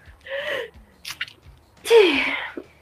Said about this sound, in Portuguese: Eu vou espirrar de novo.